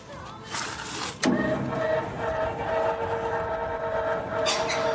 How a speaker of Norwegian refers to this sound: Og slik lyd porten til de to hallene som skipsverftet Burmeister og Wine bygde på 1960-tallet i København, og som nå kalles B- og V-hallene. Her skal Melodi Grand Prix holdes i mai.